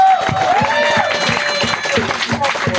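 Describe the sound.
A crowd applauds steadily and loudly for a few seconds, the dense patter of many hands mixed with cheering and voices calling out over it.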